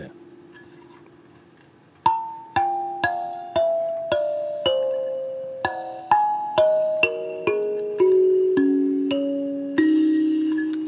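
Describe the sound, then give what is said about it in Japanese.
A galimba, a Japanese-made kalimba-like instrument with bent metal tines on its front and back, has its lower-row tines plucked one after another in a steady, slow sequence. Each note rings with a bright attack and sustained metallic decay, after a brief quiet murmur. “これがガリンバ裏側までばらします”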